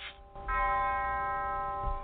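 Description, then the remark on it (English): A single deep bell tolls at a funeral service, part of 80 tolls, one for each year of the deceased's life; it rings on with a long, sustained hum of overtones, resonant and steady, with no voices. “It was a service filled with quiet poignancy, a tolling of bells, 80 for each year of his event filled life”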